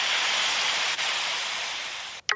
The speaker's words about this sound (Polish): Sztorm 88 do 101 km na godzinę. O, No można powiedzieć, że to jest jakiś konkret. Ale ja bym dał temu poświszczeć trochę.